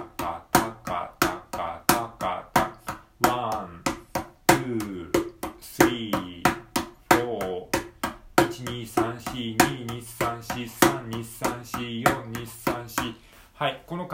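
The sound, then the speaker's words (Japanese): Rapid, evenly spaced hand strikes on a mini cajon in a steady sixteenth-note pattern, sixteen strokes per bar with each beat split into four, crisp, with a voice sounding along underneath partway through. “ミニカホンを叩いてみた⑥〜16ビートについて”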